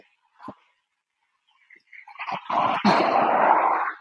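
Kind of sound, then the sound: animal, dog barking and growling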